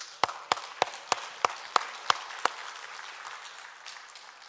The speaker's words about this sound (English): Well, one form of praising the Lord is clapping hands. Hallelujah. Praise God. Give him praise.